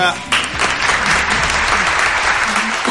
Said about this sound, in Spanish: Suenan los aplausos